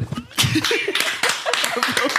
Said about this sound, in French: Premier épisode du Boys Club avec un applaudissement top ah.